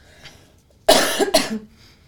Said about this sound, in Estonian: ma köhin vahepeal.